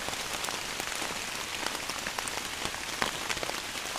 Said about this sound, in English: Yeah, I finally figured out how to do that well, and I was able to record long stretches of really beautiful deciduous rain that didn't have any technical issues. I didn't have to remove any thumps in RX. I didn't ruin any microphones.